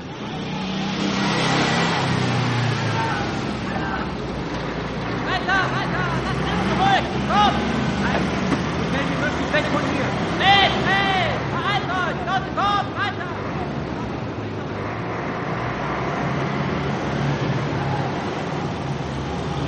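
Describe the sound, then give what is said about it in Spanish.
A truck engine rumbles and revs steadily as soldiers climb aboard and the truck starts and pulls away from a large courtyard. Its loud, continuous roar swells, with indistinct voices and shouting mixed in over the noise. “Algunos soldados suben a un camión que arranca.”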